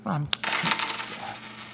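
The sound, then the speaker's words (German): Coins to pay for ice cream are set down beside the cash register at the Eisdiele Pfeiffer in Leipzig's Südvorstadt, a sharp metallic tap on a hard counter followed by a brief scatter of jingling that settles quickly. No one speaks. “Ich leg das Geld einfach hier neben die Kasse.”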